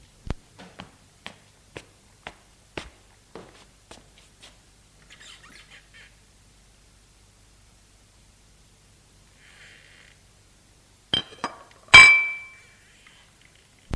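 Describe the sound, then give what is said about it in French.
Light, irregular clinks of dishes and cutlery as a maid serves soup tap out over the first few seconds, then a pause, then a louder cluster of clatter ending in one bright ringing clink, with no talking. “Il s'avance, prend sa place, s'excuse du retard, et la domestique lui sert le potage.”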